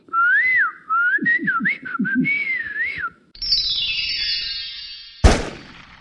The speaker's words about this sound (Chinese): 那这老师教我什么呢？吹口哨。他教的吹口哨可不是我已经会的这种，